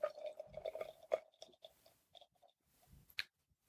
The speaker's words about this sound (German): Uh, der Geruch aus der Dose. Okay, ich schütte mal eben ein und hoffe, mich nicht komplett voll zu saugen.